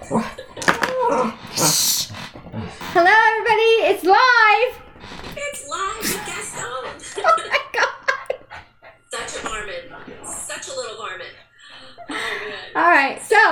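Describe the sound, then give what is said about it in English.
A dog barks and yelps in a cluster of sharp, pitched outbursts near the middle, loud, with people laughing and talking around it. “before the dog started barking”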